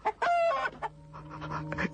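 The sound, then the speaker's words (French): A rooster that has just been thrown down clucks, a quick burst of loud, throaty clucks followed by softer, drawn-out murmuring calls, with no one talking, as it is urged to eat. “Allez Allez maintenant Vas-y Jette le coq Jette-le Allez, mange coq, je t'en prie Mange Mange coq Mange”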